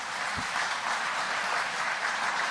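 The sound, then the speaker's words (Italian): Sustained audience applause, a dense wash of many hands clapping at a steady, even level throughout, with no voices rising above it. “Quanto mi piace l'applauso, quanto mi piace.”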